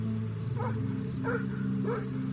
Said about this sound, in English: Somewhere in the neighborhood, a dog barked. The sudden noise startled me enough that I almost went running back home.